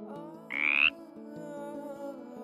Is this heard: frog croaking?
yes